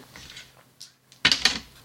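Dice are rolled for a history (Geschichte) check and show 61. A short burst of hard, rapid clatters settles quickly, preceded by a few faint taps and shuffling sounds.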